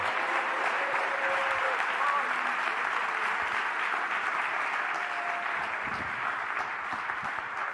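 A church audience at Believers Church applauds steadily to welcome a speaker, a dense wash of clapping that holds at a constant, fairly loud level for several seconds with no pauses, tapering only slightly at the end.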